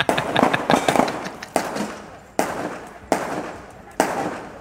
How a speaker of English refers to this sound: it sounds like gunshots. I'll let you know what this is. Oh, that that that's gunshot, gunshots.